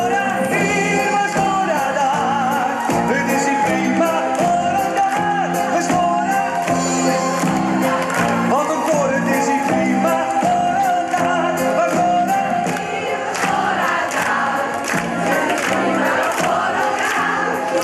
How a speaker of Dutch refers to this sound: Wat geweldig, ook dat publiek dat allemaal meezingt en klapt. Wat een feest moet dat zijn geweest in die winkel, zeg.